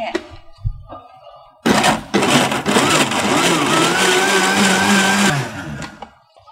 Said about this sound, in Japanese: 福島県産の桃を使用した完熟桃のスムージーです今ミキサーにかけまして